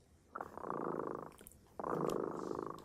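A cat purrs in two long, steady rumbling bursts, a low buzzing drone that pauses briefly between breaths, moderately loud with no talking.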